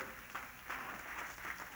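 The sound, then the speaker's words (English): An audience claps together to rejoice for the coming resurrection day, in a steady, dense patter of many hands, soft overall with slight swells, and no voices over it. “Well, if you believe it, clap your hands and let's rejoice together for that great resurrection day.”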